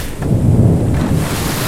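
Loud, steady roar of storm wind over a churning sea, with a deep rumbling low end and surging waves crashing, no voices present.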